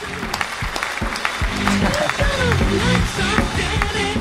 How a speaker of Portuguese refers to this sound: Ó, palmas também.